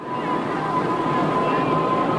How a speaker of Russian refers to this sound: С гудков это все начиналось